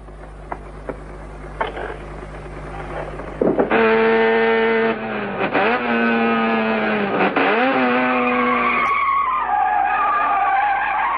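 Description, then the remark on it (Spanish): After a few seconds of quiet rumbling, a car weighing nearly one ton skids hard backward on locked wheels, giving a loud, sustained tire screech that wavers in pitch for about five seconds before easing off. “Ese coche pesa casi una tonelada y no solo fue frenado, sino que una fuerza invisible le hizo dar marcha atrás con las ruedas bloqueadas.”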